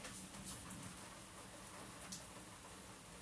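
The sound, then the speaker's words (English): Soft, steady rain comes in through an open window, a continuous hiss with faint scattered patter and no voices. “I'm just gonna leave the window open because like um, it's already radio sounds.”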